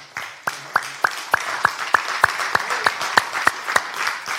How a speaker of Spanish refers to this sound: Ah, hermano, yo le doy otro aplauso a Cristo, hermano.